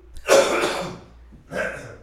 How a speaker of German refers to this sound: Na, jetzt muss er husten.